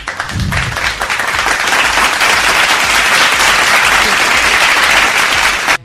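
A crowd breaks into sustained applause, dense and steady clapping at a strong, even loudness for several seconds, with a brief low voice murmur at the start before it cuts off abruptly.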